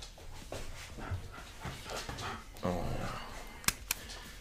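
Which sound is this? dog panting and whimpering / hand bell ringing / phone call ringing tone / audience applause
dog panting and whimpering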